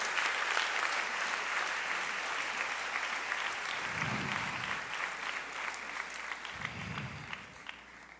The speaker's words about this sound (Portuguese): Aplaude ele, ele é digno, aleluia.